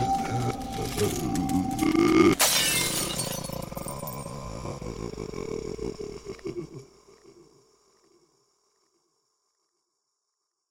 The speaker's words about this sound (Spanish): Lo único que hago es cubrirme con las cobijas mientras intento ignorar el sonido, ese sonido pequeñas piedras golpeando mi ventana.